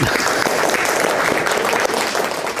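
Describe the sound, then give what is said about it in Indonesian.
A crowd applauds a guest speaker steadily, a dense patter of many hands clapping at an even, loud level throughout, with no voices standing out. “Ya mari kita tepuk tangan kepada”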